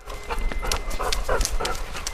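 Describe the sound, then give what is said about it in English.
A four-year-old Labrador detector dog of the Canada Border Services Agency, trained in narcotics and firearms, pants quickly and steadily, short breathy huffs repeating in a fast, even rhythm, with no one speaking. “We have uh, detector dogs trained in narcotics and firearms.”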